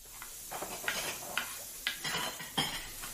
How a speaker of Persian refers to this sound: گوشتام که خورد شد پیاز داغمم آماده شد از روی گاز بر میدارم یه قابلمه میذارم رو گاز